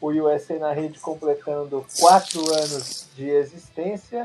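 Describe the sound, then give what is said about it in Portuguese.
A soda can is cracked open to celebrate an anniversary and releases a bright, fizzing hiss for about a second while a man keeps talking over it. “abrindo uma lata de refrigerante para comemorar.”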